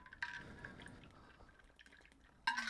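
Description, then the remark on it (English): Ice rattles in a Yeti insulated tumbler of ice water as someone drinks, with a soft slosh of water between two louder clinking bursts, with no talking. “Can you pass me my water? Appreciate it. Oh, ice still there, Yeti.”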